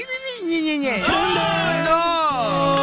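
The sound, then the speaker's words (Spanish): A voice wails in an exaggerated, theatrical cry, pitch sliding and wavering through drawn-out sobbing sounds, loud, about three seconds long, like someone mock-crying. “No se están quejando, oh, no, están llorando”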